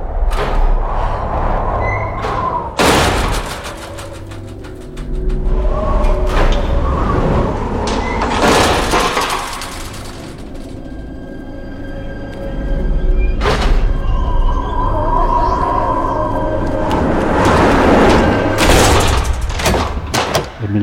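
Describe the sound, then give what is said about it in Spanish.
A door in a student residence bangs several times at irregular intervals, loud sharp thuds standing out over a rumbling, echoey background of shuffling and creaks. “Y una puerta golpea insistentemente”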